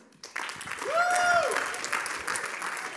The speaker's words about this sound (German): Und ähm, geben wir doch einen grossen Applaus